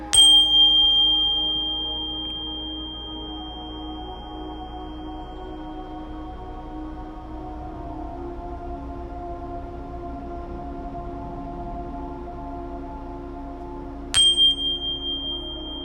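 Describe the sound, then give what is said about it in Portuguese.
A bell strikes once with a bright, ringing tone that slowly fades over many seconds against a low, steady drone, then a second strike rings out near the end and begins to decay, during a spiritual protection meditation invoking Archangel Michael. “do sino, deixamos os nossos anjos e arcanjo Miguel e sua falange de anjos protetores trabalharem.”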